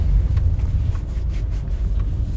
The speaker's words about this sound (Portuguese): Agora é cedo aqui, saindo do carro, né, lá na garagem do estacionamento, antes de botar o carro em movimento, nesse exato instante, 11h35, 11h40 aqui do dia